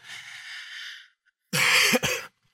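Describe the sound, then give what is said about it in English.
A raspy, breathy throat sound, a brief pause, then a loud cough in two harsh bursts. No one speaks. “Excuse my cough.”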